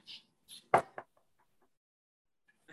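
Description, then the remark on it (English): Knocking on a table: a couple of loud knocks in quick succession, with a few softer taps before and after amid quiet. “Knock on the table if you're with me.”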